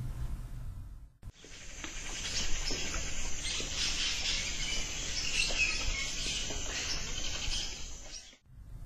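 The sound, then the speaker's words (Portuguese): A barn owl, known as rasga-mortalha, gives a harsh, raspy screech, like cloth being torn, held as one long hissing rasp for about seven seconds. It sounds fairly loud, with no other sounds around it. “O canto da rasga-mortalha anuncia a morte de alguém.”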